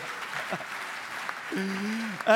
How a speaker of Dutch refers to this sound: Even applaus voor eh, weer een heel lekker seizoen Schaal. Daar zijn we er blij mee, toch jongens?